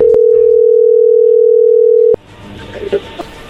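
A steady, loud telephone tone of an outgoing call hums continuously for about two seconds, then cuts off abruptly, giving way to faint background noise and a few soft clicks.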